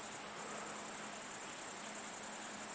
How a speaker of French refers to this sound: 9 juillet 2018. De mon balcon, à Fourcinet, dans le Drôme. Ce soir, euh, superbe ambiance. C'est l'éveil des grandes sauterelles vertes, Tetigonia viridissima.